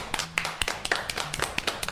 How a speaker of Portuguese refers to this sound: Gente, uma salva de palmas pra esse menino adolescente.